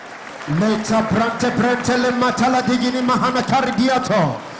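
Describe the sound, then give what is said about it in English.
An audience claps their hands while praying, a steady, sharp patter beneath a loud, continuous voice speaking fervently over the top for the whole stretch. “I want you to clap your hands and pray like never before.”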